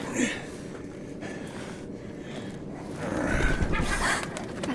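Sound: seagull call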